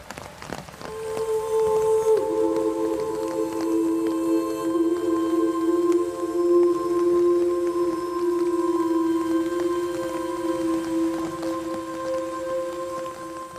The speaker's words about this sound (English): I think with the sound design and the music and that rain, of course, that you hear